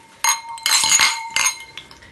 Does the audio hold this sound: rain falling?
no